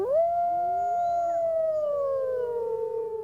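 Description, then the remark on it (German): Wolves howl in long, sustained, wavering tones, with a few voices overlapping and slowly sliding downward, loud and clear with no talking. “Heute mit Ingeborg Hein und einem Geheul, das uns im Moment noch eher unvertraut ist.”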